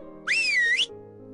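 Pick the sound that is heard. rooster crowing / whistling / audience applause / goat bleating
whistling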